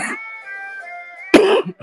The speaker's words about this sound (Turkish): vebalı gibi öksürüyorum ya. Allah kahretsin. Vallahi vebalı gibi öksürüyorum ya.